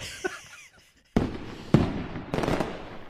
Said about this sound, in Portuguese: Todos lançaram o foguete nesse dia, mas com os intervalos muito pequenos